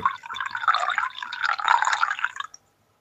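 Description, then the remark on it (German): Coffee, a small compressed espresso-style coffee, streams steadily into a cup for about two and a half seconds, a continuous gurgling pour that rises slightly in pitch before stopping abruptly, with no voices. “Sag mal, wie viele Espressi kann man hintereinander wegsaufen? Hör mal.”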